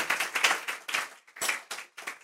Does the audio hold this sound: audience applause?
yes